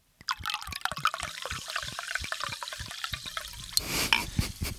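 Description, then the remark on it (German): A voice imitates a participant in a telephone conference urinating: a sputtering trickle of wet splashes and clicks for a few seconds, then a steadier hissing stream near the end. No words are spoken. “Und ich dachte, ehrlich gesagt, da pinkelt einer.”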